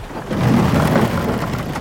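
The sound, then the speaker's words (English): A deep, rolling rumble of thunder with a flash of lightning over a dark island swells quickly and holds steady for a couple of seconds, heavy in the low end, with a faint hiss like rain beneath it. “another flash of lightning illuminates the dark island.”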